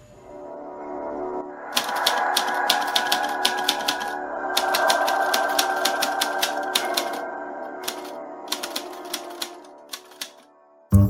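Rapid clacking of an old mechanical typewriter in an uninhabited building, keys striking in quick irregular bursts with brief pauses, fairly loud over a low mechanical hum, ending with a sharp final thunk.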